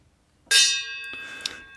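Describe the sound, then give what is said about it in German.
A small bell is struck once to ring in the "Weisheit des Tages" (wisdom of the day) segment, a bright metallic ding whose clear high tones ring on and slowly fade, with a couple of faint tapping sounds during the decay. “Wir läuten immer die Weisheit ein.”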